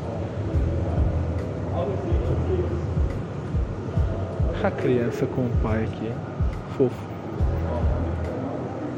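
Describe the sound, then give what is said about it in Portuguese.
A subway train rumbles into a station, a steady low roar filling the background while people talk over it. “tá impressionada com o metrô chegando.”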